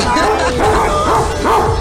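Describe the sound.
A dog barks loudly and close by, letting out about four sharp, yappy barks in quick succession against a noisy background, with a person's voice mixed in.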